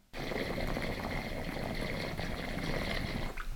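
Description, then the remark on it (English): Water bubbles through a newer water pipe with a bigger foot holding a larger volume of water, in a steady, smooth rumble, fairly loud, running continuously for about three seconds before cutting off abruptly, with no talking. “and it's more of a smooth rumble, and that has to do with the size of the foot because there's a different like volume of water that's inside the piece.”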